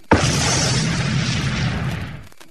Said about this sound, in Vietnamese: xoẹt một tiếng cây pháo bay lên không trung tiếp theo ánh lửa bung ra một tiếng pháo nổ tung đây là pháo hiệu để thông báo quần hào trong chùa liền kéo ra